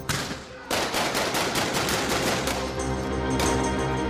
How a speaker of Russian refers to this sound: И не очень понятно, кто выстрелил первым, но началась пальба.